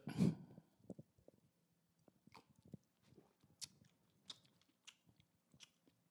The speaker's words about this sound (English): Um, regardless, let's take a first sip.